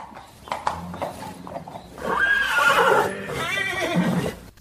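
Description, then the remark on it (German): A horse's hooves clip-clop in a few sharp knocks, then a long, loud whinny rises and wavers for several seconds, ending in a shaky breathy neigh. “Und ähm, beide äh, haben eine ganz innige Bindung zu dem Pferd.”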